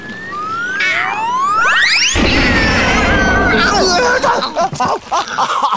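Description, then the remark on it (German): Rising whistling sweeps build up, then a loud crash of a bicycle toppling over bursts in, followed by a few seconds of clattering and rattling metal as it settles. “Das war mhm. schmerzhaft. Sind wir hingefallen?”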